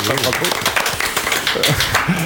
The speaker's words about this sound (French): D'abord, il y a des nouveaux et de nouvelles venues qu'on applaudit d'ailleurs, on va les applaudir.